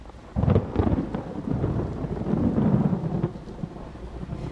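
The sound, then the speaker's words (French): Steady rain, just starting to fall, hisses across the whole stretch while deep thunder rumbles and swells underneath, fairly loud, with no voices present. “Après la consultation, elle se met en route avec son fils pour rentrer à la maison de son frère alors que la pluie commence à tomber.”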